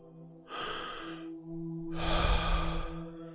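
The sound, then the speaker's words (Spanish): A deep breath drawn in sharply, a short pause, then a longer, slower airy exhale that releases gently, like a relaxed sigh, during a guided relaxation breathing exercise. No talking. “Inhalo profundo y dejo salir.”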